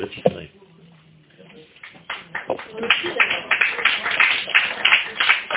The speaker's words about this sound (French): C'est fini alors, si j'ai eu les applaudissements. non, moi j'ai eu les applaudissements, je ne peux pas.